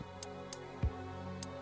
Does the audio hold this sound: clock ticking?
yes